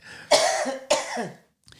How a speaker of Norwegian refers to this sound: Jeg fikk du et lite hosteanfall her